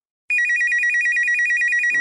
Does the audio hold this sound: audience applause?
no